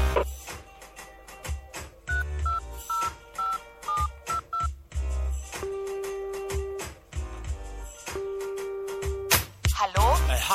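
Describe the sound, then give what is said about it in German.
A rapid sequence of touch-tone beeps as a phone number is dialed, short steady tones in quick succession, then a couple of longer held tones over a busy, music-like background. “Drum dachte ich, ruf doch einfach an, dann bist du nicht so allein.”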